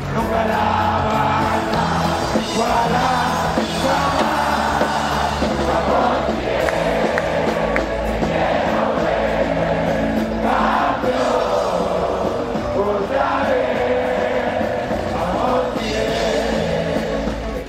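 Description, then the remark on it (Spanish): A stadium crowd of about 10,000 Tigres fans roars and cheers continuously in an ovation for the champions of Mexican football at the Volcán stadium, with whoops and shouts rising in waves over a dense, sustained wash of noise, loud throughout. “Hubo música en vivo, ovación a los campeones y hasta mensaje incluido para el acérrimo rival.”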